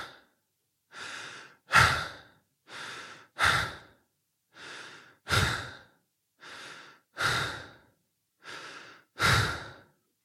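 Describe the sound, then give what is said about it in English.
Steady, rapid breathing demonstrated at 20 breaths per minute, the tachypnea cutoff: five paired breath cycles, each a soft inhale followed by a louder, airy exhale, repeating evenly with no talking. “It'll be like, that's normal. Again, 20 times a minute, which is kind of your tachypnea cutoff.”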